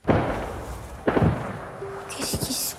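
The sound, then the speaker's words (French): Two heavy gunshots boom about a second apart, each trailing off in a rumbling echo, followed by a cluster of quicker, sharper cracks near the end. “Il y a eu des coups de feu.”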